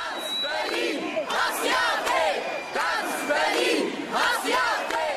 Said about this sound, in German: Noch in der Wahlnacht versammeln sich hunderte AfD-Gegner am Berliner Alexanderplatz zu einer Spontan-Demo vor dem Traffic Club, in dem die AfD ihren Wahlsieg feiert.